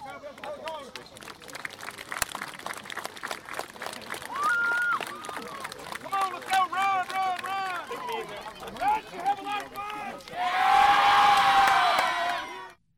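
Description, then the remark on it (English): Excited children's voices shout and chatter at a youth football practice, with a coach calling over them, building to a loud burst of cheering and whooping near the end before cutting off. “you definitely feel the energy and the kids' excitement”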